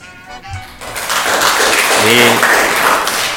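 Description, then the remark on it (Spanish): Fifth-grade schoolchildren of the Verango Merana school applauding on a particularly hot day, in a dense, steady burst of clapping that starts after a brief quieter moment and continues loudly, with a few voices calling out underneath. “Hoy hace un día particularmente caluroso y cansa hasta aplaudir.”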